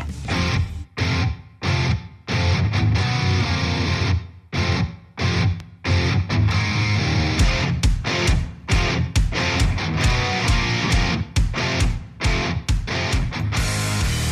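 A loud, dense rock track with distorted guitars and driving drums, broken by sharp stop-start pauses in the opening seconds before settling into a steady, full-band groove; it is the title song of a band's album, played on the radio station Rock Antenne.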